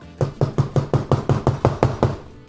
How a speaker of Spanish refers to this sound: Y de repente oigo que tocan la puerta.